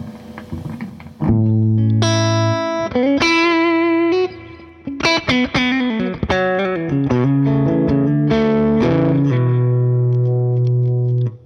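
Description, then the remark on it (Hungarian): Loud, heavily distorted electric guitar through a cranked amp, playing a run of sustained notes and chords with a thick, saturated tone and some echo, with no talking. “hát föltölöm, tökig.”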